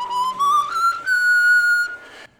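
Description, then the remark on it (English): A person whistles a short melodic phrase quoted from a Bach cantata over a Skype call, a few notes climbing to a long sustained tone, clear with a slightly thin, call-like quality, and no talking. “Oh, whistling through Skype.”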